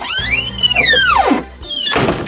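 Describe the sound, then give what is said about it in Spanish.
A door creaks open to let in a guest, with a long squeaking hinge that slides downward in pitch over a low hum, followed by a brief rustling thud near the end. “abre la puerta y que hay un invitado.”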